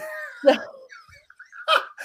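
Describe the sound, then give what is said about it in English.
A hound dog gives two sharp, loud barks about a second apart, with drawn-out baying tones between and around them. “He's a hound dog.”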